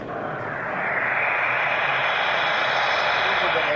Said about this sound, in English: These are things we may have seen in some uh, movies with uh, futuristic cars. Well, well, I think I like this a little bit more than the others that I've heard so far.